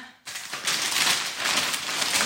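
Paper rustles and crinkles close by in a steady, busy stream after a brief quiet start, as a wrapped package is opened. Nobody speaks.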